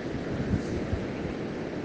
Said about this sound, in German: sitze ich jetzt hier am Meer unter so einem Cabana-Hütchen, wie auch immer man das nennt, unter so einem Strohdach